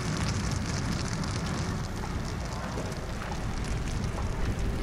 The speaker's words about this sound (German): Die illegale Zeltstadt brennt lichterloh. Jemand wollte sich nachts an einem Feuer wärmen. Die Flammen griffen über auf die selbstgebauten Hütten aus Müll und Plastik.